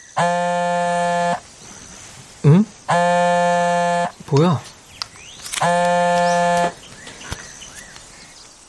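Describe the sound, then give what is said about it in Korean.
A mobile phone vibrates in three long, loud buzzing bursts as messages arrive in a group chat, each lasting just over a second, with short gaps between them. A voice speaks briefly in the pauses. “휴대폰 진동이 쉴 새 없이 울렸다.”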